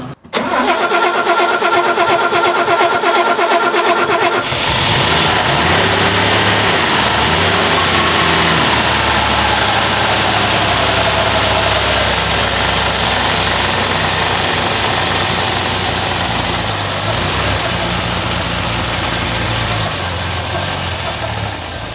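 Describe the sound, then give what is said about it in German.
A fire truck's large engine cranks with a rapid, whirring starter for about four seconds on a second attempt, then catches and settles into a loud, steady, rumbling idle, with no talking. “Aber dann habe ich ein bisschen bessere Chancen, dass er anspringt.”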